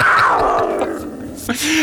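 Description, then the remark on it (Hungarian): A tiger lets out a loud roar that starts high and grating, then slides down into a rough growl, ending with a brief sharp snarl. “Na hát a tigrisnek kevésbé volt kedve fotózkodni.”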